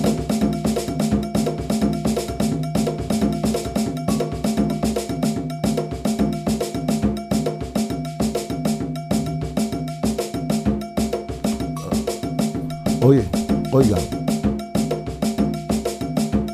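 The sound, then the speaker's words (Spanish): Dense Abakuá ritual percussion from Havana, with a sharp, insistent cowbell pattern repeating over layered drums, steady and loud throughout, with a brief voice calling out near the end. “Abacuá, igual alguien quiere conocer algo de, de qué cosa quiere decir Abacuá, pues voy a buscar algo aquí, a ver si aquí, el Abacuá en La Habana.”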